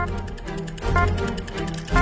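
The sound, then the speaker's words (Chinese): A quiz answer countdown timer, started after a quiz question is read out, ticks in a fast, steady rhythm, its crisp clicks repeating evenly over a low, sustained backing tone that swells briefly midway. “答题倒计时开始”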